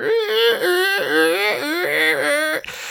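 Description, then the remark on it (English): A voice imitates a squeaking leather jacket with a run of about six high, strained, wavering squeals in quick succession, pitched like whiny creaks, ending abruptly. “So yeah, his jacket is just like squeaking and rubbing and honking and twisting and whatever.”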